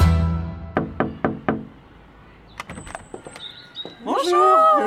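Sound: birds chirping outside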